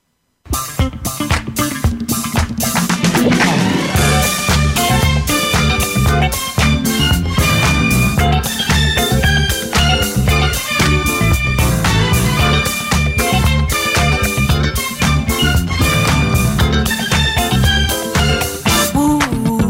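A loud, full-band funk-style song plays throughout after a split-second pause, with a steady driving beat, punchy bass and bright horn or keyboard stabs, and no speaking over it.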